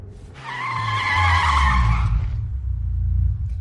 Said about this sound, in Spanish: ¿Por qué paras el coche si no hemos llegado?